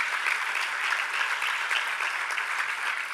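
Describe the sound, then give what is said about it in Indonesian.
An audience applauds for the Lord Jesus Christ, a dense wash of many hands clapping at once, sustained and even in loudness with no voices over it. “Berikan tepuk tangan bagi Tuhan Yesus Kristus.”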